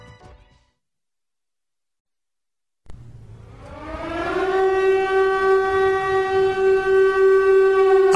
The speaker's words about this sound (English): I have been playing air raid sirens for seven months before COVID, before all this, because I'm telling you, they're making their move.